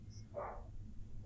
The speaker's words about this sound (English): sorry if you can hear barking. Yeah. I have three dogs in my house right now.